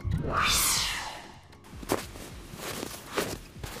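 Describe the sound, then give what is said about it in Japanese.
Crunching footsteps on snow, a few slow, evenly spaced steps, following a brief rising swoosh at the start; no talking. “雪 白い白い”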